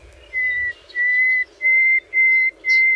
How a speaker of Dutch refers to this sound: Maar we beginnen met de nachtegaal. Zo klinkt hij